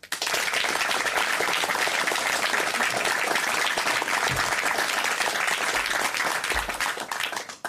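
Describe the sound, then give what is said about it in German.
An audience applauds steadily, a dense, even wash of many hands clapping at a sustained loud level for several seconds before tapering slightly at the end, with no voices over it. “Ihr Applaus, danke fürs Kommen erstmal.”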